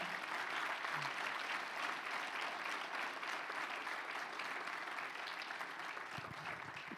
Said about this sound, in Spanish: Dale otro fuerte aplauso al Señor por la vida de nuestro hermano.